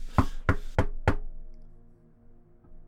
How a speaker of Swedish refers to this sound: Ja, knacka då. Ja. Ja, du, du, står, du står ju med handen uppe så.